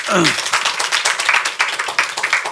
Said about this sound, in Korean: 아, 박수 한번 부탁합니다.